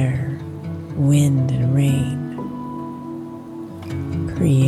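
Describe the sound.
Steady rain falls throughout, a constant hiss, while a voice or melodic tones rise and fall over it.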